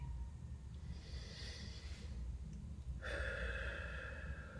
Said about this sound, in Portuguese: Faz uma respiração profunda, vai voltando, espreguiçando.